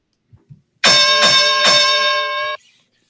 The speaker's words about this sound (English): Let's ring a bell on this.